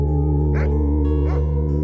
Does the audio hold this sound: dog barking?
yes